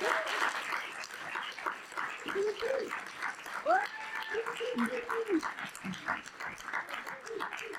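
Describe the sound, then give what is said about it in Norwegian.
An audience applauds steadily for several seconds, a dense, even crackle of many hands clapping, with a few short voiced calls rising over the clapping. “Skal dere få applaus?”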